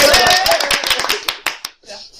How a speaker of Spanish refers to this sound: Un aplauso para Lina Morgan.